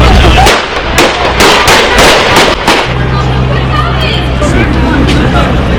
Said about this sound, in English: Man, apparently um, Kodak was you know taking pictures um, and then you just hear gunshots.